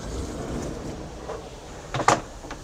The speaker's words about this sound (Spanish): Toco. La puerta de sliding door. La abro.